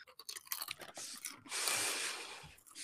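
Crunchy chewing on chips: a quick run of sharp, crackling bites followed by a longer stretch of loud, gritty crunching, with no talking.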